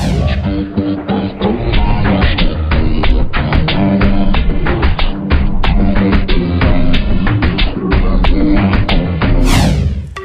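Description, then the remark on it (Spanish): An old, classic reggaeton song by a duo plays loud and full for about ten seconds, its steady, punchy beat driving under layered melody, with a rising sweep near the end. “Empezamos con este tema que suena así.”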